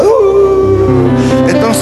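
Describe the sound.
A person imitates a dog's howl: one loud, sustained, wavering vocal tone that slides in pitch, held for almost two seconds with no other sounds.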